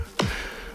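A person slaps their own belly with a hand in a recording room, producing a single dull thump with a brief low resonant boom, heard alone against faint background noise.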